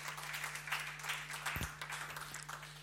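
A crowd applauds after a personal testimony, a dense wash of overlapping handclaps that holds at a fairly even level throughout, with a low steady hum running underneath.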